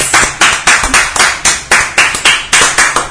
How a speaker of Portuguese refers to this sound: Uma salva de palmas.